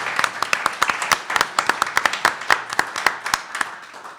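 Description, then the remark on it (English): Audience applause for author Alex Kotlowitz during a live radio broadcast: many hands clapping in a dense, uneven patter of sharp claps, fairly loud and steady for a few seconds, with no one speaking over it. “We're going to ha- pass around a notebook for people's questions, but would you give it up, please, for Alex Kotlowitz?”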